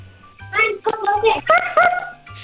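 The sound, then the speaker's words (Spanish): A young child's voice imitates a puppy, giving a few short, high-pitched yapping barks in quick succession. “¿Cómo es el ruido de un perrito?”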